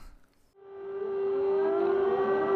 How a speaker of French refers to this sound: Qu'est-ce que c'est que ça On n'est pas censé entendre la sirène